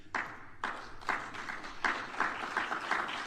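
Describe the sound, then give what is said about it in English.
Sparse, hesitant clapping from an audience after a played recording of Ron DeSantis on Florida's civics curriculum: a handful of slow, evenly spaced claps around two per second, moderately loud, with a light scatter of softer hands joining in and no voices. “People are afraid to clap.”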